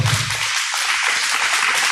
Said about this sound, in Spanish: Un aplauso al Señor si estás de acuerdo con esto.